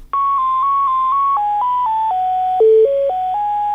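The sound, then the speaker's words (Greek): Loud, steady electronic telephone tones over the line while a caller waits on hold: a few repeated beeps at one pitch, then a stepping sequence of notes at changing pitches, with no one speaking. “περιμένετε μισό λεπτό στο τηλέφωνο.”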